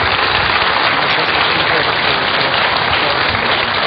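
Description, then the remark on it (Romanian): Steady, dense applause from an audience in Baia Mare for a priest they listened to, many hands clapping together at a constant, fairly loud level with no voices on top. “Aici, uh, cu siguranță o să vă mai încălzească încă o dată palmele celor care l-au ascultat.”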